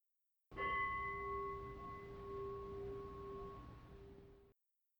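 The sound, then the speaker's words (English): A single meditation bell is struck once to end a meditation session and rings out with a clear, sustained tone that slowly fades over a few seconds, heard alone with no voices. “And when you're through meditating or whatever, hit unpause and we'll be here to hit the bell to end the meditation or whatever.”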